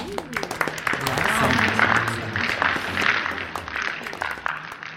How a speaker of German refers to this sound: Die Rede ist vom griechischen Styx, äh, ja, der eigentlich eine Göttin ist. Ja, denn äh, Applaus bitte.